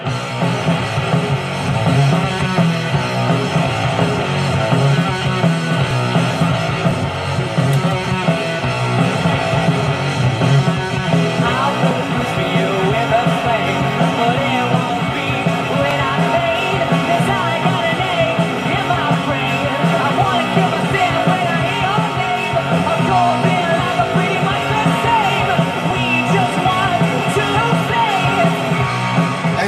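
A loud, gritty rock track with distorted guitars and pounding drums driving straight ahead, raw shouted vocals cutting through the dense, unrelenting wall of sound for the whole stretch.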